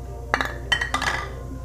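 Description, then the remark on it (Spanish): Large glass beer bottles (caguamas) clink together in a toast, three bright ringing knocks in quick, uneven succession, fairly loud over a low steady hum. “Ya chocamos las caguamas, o sea, como...”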